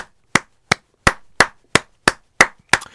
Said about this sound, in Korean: 정말 진심으로 말씀드리는데 박수 쳐드리고 싶어요.